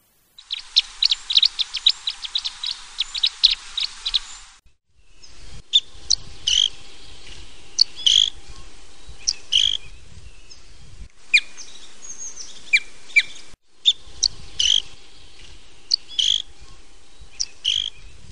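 Red crossbill (Loxia curvirostra) calls: sharp, high 'kip' notes, first in a quick rapid-fire burst, then scattered in loose irregular series over faint low rumbling background noise, with no one speaking.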